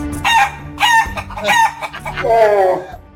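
Several loud chicken clucks in quick succession, followed by a longer, drawn-out rooster crow, with no talking.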